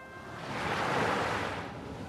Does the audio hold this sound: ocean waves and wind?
yes